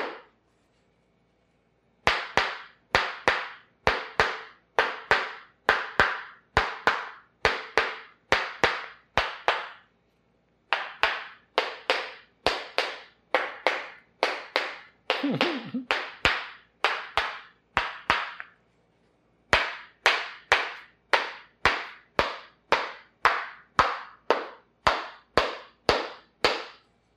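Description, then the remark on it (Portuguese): A larger, stronger hammer taps on a person's arm in quick, steady bursts: crisp, sharp knocks repeating evenly in several long runs separated by brief pauses, with no voices. “Agora eu estou usando esse martelo maior.”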